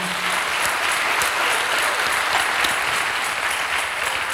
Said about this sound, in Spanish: Eso, si quiere dar un aplauso a Dios, déle un aplauso a Dios.